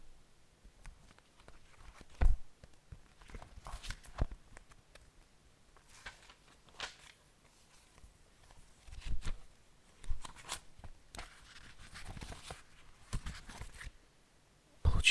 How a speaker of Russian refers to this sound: Давайте попробуем. Э, начнем с шелеста страниц.